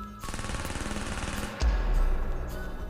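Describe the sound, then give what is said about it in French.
A sustained burst of rapid automatic gunfire, a dense rattling stream of shots that continues without pause, swelling louder with a heavy low boom partway through. No one speaks. “Un style de meurtre qui consistait à passer à côté de ses victimes, les arroser de balles et fuir à toute vitesse à moto pour éviter le trafic.”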